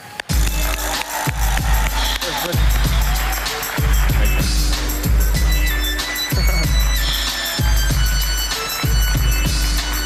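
An audience applauds steadily and loudly, the dense clapping blended with upbeat music carrying a heavy, regular thumping bass beat throughout.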